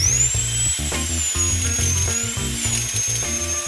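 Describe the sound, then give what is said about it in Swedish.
A dental drill whines continuously at a high pitch, its tone wavering slightly, over a steady low rumble for the whole stretch, as cavities are drilled in a dentist's chair. It sounds fairly loud, with no talking. “Ja, det här ljudet, det blir jag rätt van vid tidigt i vuxen ålder.”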